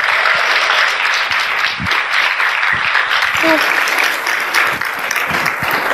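An audience applauds loudly and steadily during a church service, welcoming a speaker, a dense wash of many hands clapping at once with scattered cheers and voices mixed in, sustained throughout without a break.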